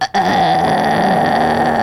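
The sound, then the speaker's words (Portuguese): A strained, low vocal fry pushed from the throat: a gravelly, creaky sustained tone held steadily for under two seconds after a brief catch, loud and alone without any talking. “Aí força a garganta. Aí você fala, não, mas é só um som grave.”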